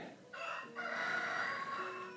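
A rooster at the speaker's home crows loudly and repeatedly, one long drawn-out cock-a-doodle-doo with a strained, harmonic-rich tone, rising after a brief opening note and holding steady before trailing off.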